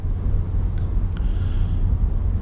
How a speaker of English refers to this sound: Anyway, it's getting warm in the car. I need to turn the air up. You might hear it. I don't know.